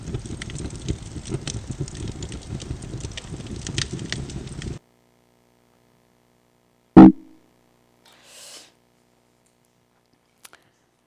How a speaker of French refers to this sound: Autre texture naturelle, crépitement du feu.